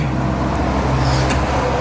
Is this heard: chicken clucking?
no